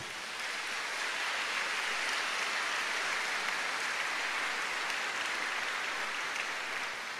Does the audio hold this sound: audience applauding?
yes